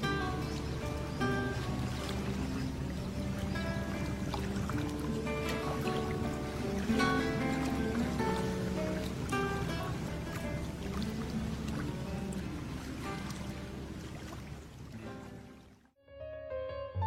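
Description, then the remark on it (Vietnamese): Steady ocean waves wash along the shore in a continuous, fairly loud rush of water with no speech, cutting out abruptly for a moment just before the end. “đi dọc bờ biển và tớ sẽ kể cho cậu nghe”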